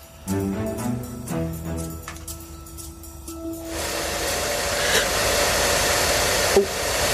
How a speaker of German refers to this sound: Das dürfte der Staubsauger sein. Falsch. Der Föhn.